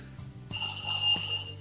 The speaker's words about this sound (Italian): Il telefono antico che suona, che carino.